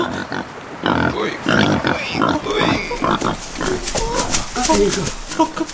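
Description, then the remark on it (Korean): A mother wild boar, come for her young, grunts and snorts in a rapid, irregular series of fairly loud calls, with excited voices talking over parts of it. “와, 와, 멧돼지 갔어요, 할머니.”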